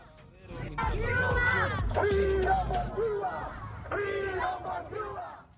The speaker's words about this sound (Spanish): Esto es el sonido ambiente frente a las Cortes Penales de Londres de las manifestaciones de los cubanos contra el régimen castrista.